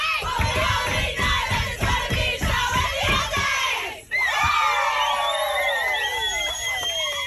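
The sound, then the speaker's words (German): Australian women players celebrate their round-of-16 win over Denmark in a bus, cheering and shouting together: loud chanting with rhythmic stomping or clapping beats at first, then a burst of excited high-pitched yelling and whooping. “So haben die australischen Spielerinnen ihren Sieg gegen Dänemark im Achtelfinale gefeiert. Das war im Bus und die Freude unüberhörbar riesengroß.”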